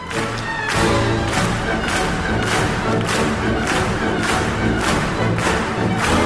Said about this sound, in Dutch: Voilà, we gaan in onze handen klappen vandaag. Zoals we dat doen op 1 januari met het nieuwjaarsconcert. Kom maar, hup.